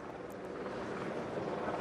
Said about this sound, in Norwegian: Ja, for du hører helikopteren er det godt.